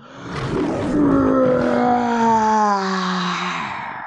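A single drawn-out lion roar, loud, rising into a rough bellow and then sinking lower in pitch as it fades over about four seconds, with no voices.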